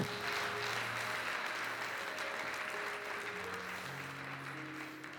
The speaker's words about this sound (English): Amen. Amen. Hallelujah. Give the Lord a hand.